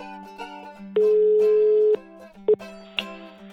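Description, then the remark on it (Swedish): A steady telephone ringing tone sounds for about a second, followed by a short second beep, heard while a phone call to an expert is being placed, over a faint background hum with no voices. “Därför ringde vi upp en expert för att reda ut begreppen.”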